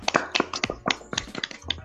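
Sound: hands clapping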